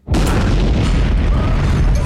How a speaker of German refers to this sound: Doch dann erschüttert zum dritten Mal in vier Tagen eine Explosion das Werk.